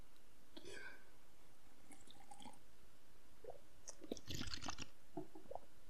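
Quiet sips and swallows of water as a person drinks, with soft wet gulping and mouth noises coming in a few scattered bursts, the strongest cluster near the end.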